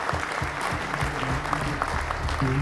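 A crowd applauds steadily, a dense wash of clapping hands that stays loud and even throughout, with a faint murmur of voices and a low tone underneath.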